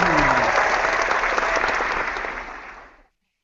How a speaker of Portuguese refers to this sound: Então tá, então aplausos.